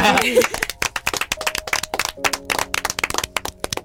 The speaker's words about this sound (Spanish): Yo creo que un aplauso para todos, ¿no?